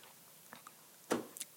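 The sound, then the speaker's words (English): A single loud, wet gulp right up against the microphone, followed by a couple of small mouth clicks, with no talking around it. “I just gulped really loud into the mic.”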